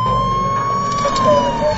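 ambulance siren

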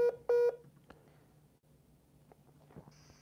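telephone keypad dialing tones

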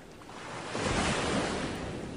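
ocean waves

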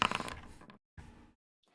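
dice being rolled

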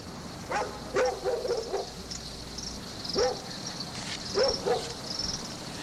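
dogs barking at night

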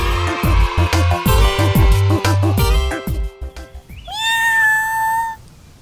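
cat meowing

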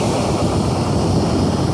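sea waves

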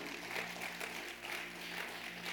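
audience clapping

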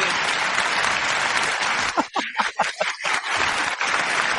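applause

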